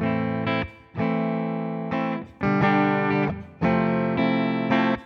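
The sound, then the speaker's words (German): Electric guitar with a clean tone and reverb plays a series of sustained chords, roughly six strums, each ringing out fully before the next, with no voices. “Genau, da ist schon ein bisschen Halt drauf, ne, wie man das halt so, ich sag mal, normal macht.”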